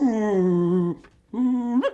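dog whimpering and yipping

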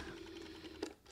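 rotary telephone being dialed

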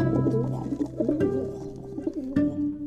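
pigeon cooing

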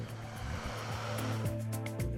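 electric kettle heating water

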